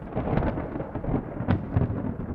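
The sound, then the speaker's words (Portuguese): A low, steady rumble of thunder rolls on throughout as the weather closes in before rain, deep and continuous, with a sharper crackle partway through. No voices are present. “O tempo fechou. Vem chuva por aí.”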